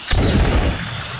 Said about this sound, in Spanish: Uno de ellos, tomando un arcabuz, hace un disparo de aviso al aire